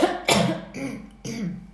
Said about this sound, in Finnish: Anteeksi, yskäisen nyt, koska tässä tämä äänikäheys